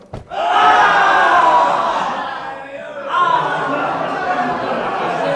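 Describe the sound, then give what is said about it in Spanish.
A large crowd erupts in a loud, sustained roar of shouting voices, swelling quickly, dipping briefly, then surging again with overlapping cries that keep going to the end. “Pueblo, pueblo mío, contémplame y une tu voz a la mía para gritar, ¡Viva la libertad!”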